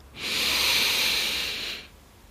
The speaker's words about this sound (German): Und dann möchte ich dich dazu einladen, dass du einmal ganz, ganz tief mit mir gemeinsam einatmest.